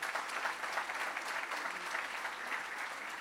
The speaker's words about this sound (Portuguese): Será que você pode dizer amém? amém. Será que você pode aplaudir Jesus por tão grande favor?